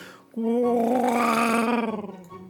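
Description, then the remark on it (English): A person makes a loud, sustained droning hum for about two seconds, imitating the engine of a World War II Walrus airplane, with the pitch swelling slightly before fading out with a wavering rattle. “I was really looking forward to that because I was going to make plane noises the whole time you were talking.”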